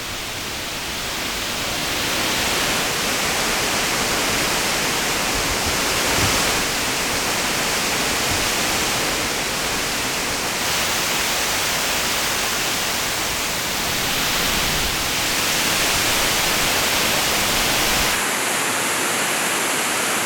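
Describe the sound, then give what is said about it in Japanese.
The roaring Fukuroda Falls in Daigo, Ibaraki, Japan, one of Japan's three great waterfalls, pours steadily, a dense, continuous wash of rushing water filling the whole range at a loud level for the full length, with no voices. “今朝は日本三名瀑が奏でるいい音茨城県大子町袋田の滝それではお聴きください”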